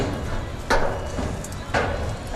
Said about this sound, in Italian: veniamo attirati da un rumore di martellate sulla miera e dal suono di una radio. Accanto a ciò che resta di Montefibre c'è un grande deposito di container.